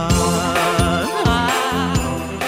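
Bright, jingling Christmas bells ring in a steady rhythm over loud, full festive music, with sharp repeated accents and no voices.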